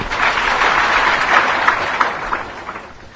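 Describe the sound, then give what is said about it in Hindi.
An audience claps steadily for about three seconds during a Hindi-language discourse, a dense, even wash of many hands with small sharp peaks scattered through it and no voices over the top. “तालियां तो बजा देते हो लेकिन अवसर पर इस बात को याद रखो और आप भी निर्दुख हो तो और मजा है उसकी भी एक तालियां और बजा देंगे फिर तो हम ही बजाएंगे आपके तरफ से कि वाह भाई वाह”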